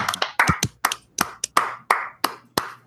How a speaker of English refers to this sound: So then it was really just me clapping. So big, big, big round of applause uh, for the Eagles getting it done.